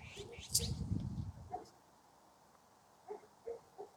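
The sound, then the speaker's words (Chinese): A guagua ji bird gives a loud burst of harsh, raspy squawking, then after a pause three short, quieter croaking calls in quick succession. “它这就是呱呱鸡，你不是觉得吗？”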